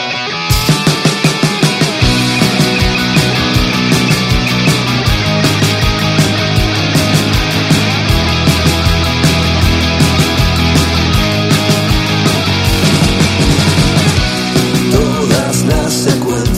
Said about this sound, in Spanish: vamos a poner una canción